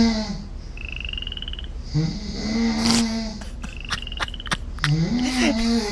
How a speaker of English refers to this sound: I, I love that the cadence of my snore is literally perfect with the frog.